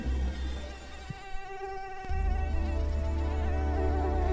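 A steady mosquito whine with a sustained high-pitched buzz and stacked tones; the hum swells louder about halfway through and drones on continuously with no speech.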